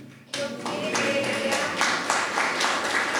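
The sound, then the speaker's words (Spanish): An audience breaks into sustained applause, many hands clapping together in a dense, steady wash that starts abruptly and holds loud throughout. “Aplaudan.”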